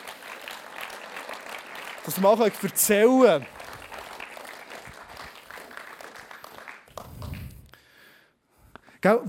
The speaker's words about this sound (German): Und äh, komm, lass uns einen herzlichen Applaus geben.